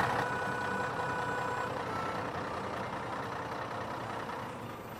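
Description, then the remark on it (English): A steady, fairly loud rumble of idling truck engines fills an outdoor motorway services car park on Anglesey, North Wales, with faint high beeping tones drifting through early on and no voices. “Down through England, into Wales, across North Wales to Anglesey, There, Chris stops at a motorway services stop.”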